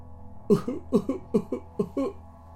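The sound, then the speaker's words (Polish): A metallic-sounding sob, as if passing through a metal mask: a halting series of about five short, catching bursts, some doubled, moderately loud over a faint steady hum, with no talking. “Szloch metaliczny, jakby przeszedł przez metalową maskę.”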